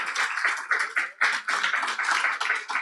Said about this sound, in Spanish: Si usted recibe esa palabra, déle un aplauso al Señor, porque Él lo va a hacer.